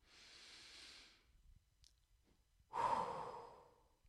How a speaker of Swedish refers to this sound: Att andas är så viktigt. Och det är inte bara att andas för att du ska leva utan det är verkligen det här.